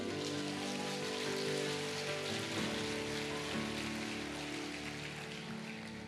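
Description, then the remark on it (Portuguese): An audience applauds in response to a preacher's call during a Portuguese-language sermon: a dense, steady wash of clapping that holds loud and even for several seconds, with a sustained musical tone underneath and no one speaking. “Diz o Senhor: quem recebe, levanta a mão e aplaude.”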